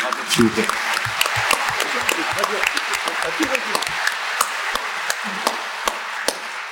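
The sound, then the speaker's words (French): An audience applauds an elected official steadily, a dense patter of many overlapping claps with sharper individual hand slaps standing out, and faint voices murmuring underneath throughout. “ça fait plaisir d'avoir un élu de cette qualité applaudissements pour vous”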